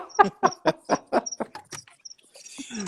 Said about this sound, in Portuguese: Ah, já é outro grilo, viu? o de lá era um, o daqui é outro.